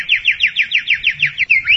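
A bird sings a fast, bright trill of about a dozen repeated downward-sweeping chirps in steady rhythm, clear, ending with a couple of rising notes.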